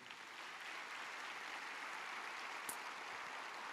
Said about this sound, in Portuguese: Pode aplaudir se você quiser.